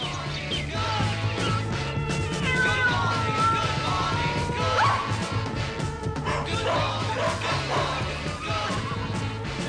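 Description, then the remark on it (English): A dense jumble of animal sound effects on a song, taken from a studio tape library: a dog barking among meows and other farmyard calls, with sheep, elephant, pig, horse, tiger, a fox chased on a hunt, cow and hen, piled over a steady musical backing that stays loud throughout without a pause. “you've got dog, you got sheep. There's elephant on this song pig, horse, tiger, and fox being chased on a hunt”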